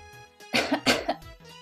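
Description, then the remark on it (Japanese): Two quick, harsh coughs in close succession, fairly loud, over a faint steady background tone, with no talking. “to have a cough”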